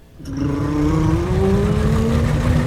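A boat engine is started and quickly settles into a loud, steady roar, its pitch climbing slowly as it revs up, with no voices over it.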